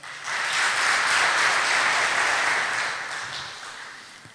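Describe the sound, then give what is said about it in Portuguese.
A church audience applauds for the Lord, a dense wash of many hands clapping that rises quickly, holds steady and loud for a few seconds, then begins to fade slightly. No one speaks over it. “E eu quero um aplauso para o Senhor.”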